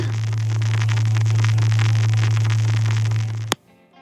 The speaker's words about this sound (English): Here's 110 hertz. What's with all the static?